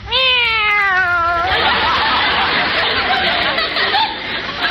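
A single high, wavering kitten meow, sounding like a voice imitating it, lasts about a second and a half, then gives way to a loud, steady wash of crowd laughter and chatter.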